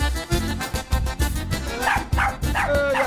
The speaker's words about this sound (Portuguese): Eita, o cachorro tá, Tá bem louco.